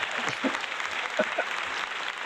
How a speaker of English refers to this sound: Let's have a round of applause. Insert applause.